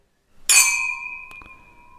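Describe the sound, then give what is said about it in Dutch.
Two glasses clink together once in a toast with a bright, ringing strike, followed by a couple of faint secondary taps as the tone hangs and slowly fades. Clear, with no talking. “voor de laatste keer in seizoen 3 zeg ik klinken.”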